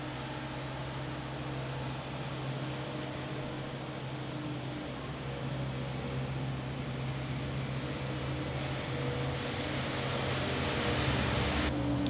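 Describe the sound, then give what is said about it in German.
A street cleaning vehicle runs outside with a steady, droning engine hum and broad rushing noise, muffled as if heard through a window, growing slightly louder toward the end. “Draußen ist ein Reinigungsfahrzeug.”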